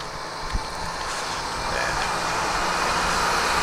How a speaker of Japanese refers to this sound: 一応ね道路は舗装されてますけど 車の通りはあまり多くないですねあ工事の車両が入ってきましたね